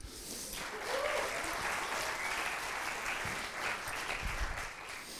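An audience claps steadily for several seconds for a volunteer holding the microphone, a dense continuous patter of many hands that stays fairly even from start to finish.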